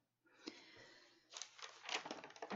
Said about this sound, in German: Dann, oh, jetzt hat man bestimmt schön mein Umblättern gehört.